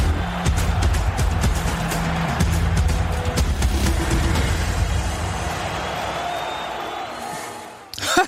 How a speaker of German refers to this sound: Der soll aufhören, das Auto hier zu fahren.